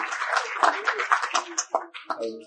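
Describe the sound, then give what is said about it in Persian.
An audience applauds with dense, steady clapping that thins out after a couple of seconds, as a voice begins to speak near the end. “مرسی اتاق فرما یه تشویق بکنید بابک اینو گفته”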